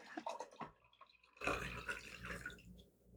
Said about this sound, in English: Just pausing for you to pour.